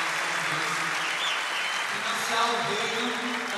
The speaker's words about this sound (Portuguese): Valeu! Uma salva de palmas para os nossos parceiros, gente. Muito obrigado, gente.